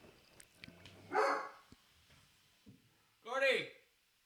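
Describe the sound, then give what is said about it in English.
A person imitates the dog Gordy barking with two loud, separate woofs about two seconds apart, with quiet background noise between them. “Gordy, can you do an impression of Gordy barking?”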